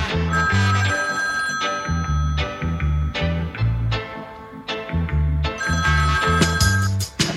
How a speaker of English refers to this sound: When me take a stop, me say me hear the phone ring.